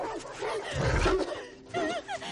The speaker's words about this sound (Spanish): Los perros corren tras ella.